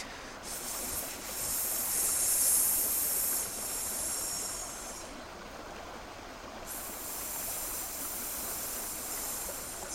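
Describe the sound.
A person doing a breathing exercise makes a long, steady snake-like hissing breath, fairly loud, with a short dip in the hiss partway through before it resumes and continues to the end. No talking.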